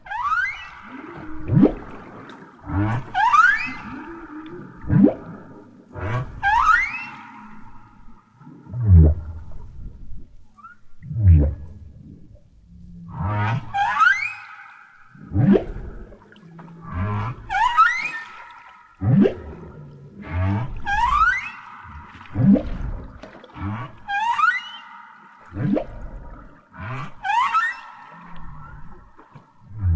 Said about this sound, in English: We're just going to sit back and let you listen to some whale song recordings featured in the film as we end this episode. They are both beautiful and haunting.